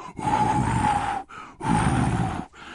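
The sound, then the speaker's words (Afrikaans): A voice imitates blowing on smoke rising from fire sticks rubbed together, with two long, forceful, breathy blows separated by a short pause, fairly loud, with a slight whistling tone through the breath. “Leeu blaas op die rookie.”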